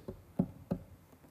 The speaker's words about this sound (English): So you just kind of hit the door like this.